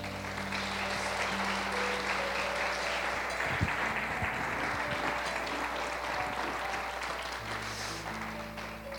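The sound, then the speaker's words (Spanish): A church audience applauds steadily for several seconds for God the Father, a dense wash of clapping with sustained organ or keyboard tones droning underneath. “Dáselo fuerte al Padre.”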